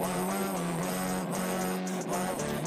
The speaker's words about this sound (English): this, this melody came to mind and I started recording. It was like, it was like, and then I, I put the distortion pedal on and I made it sound like this.